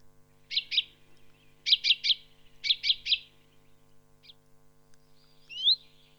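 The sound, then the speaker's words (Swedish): A common chaffinch's short, sharp contact calls repeat in quick clusters of two and three, followed by a lone call and a final upslurred note, clear with no talking. “Det här är det vanliga kontaktlätet.”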